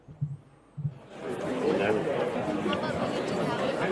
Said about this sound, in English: Hold on, let me open my office door. You'll be able to hear everyone in the call center. Hold on.